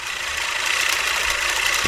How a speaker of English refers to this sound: I bought myself a 16 inch reel mower, you know, that kind of goes, well, you hear it. Listen.